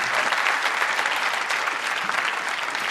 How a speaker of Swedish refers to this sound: Jag tycker det är värt att ge Jesus en applåd för det.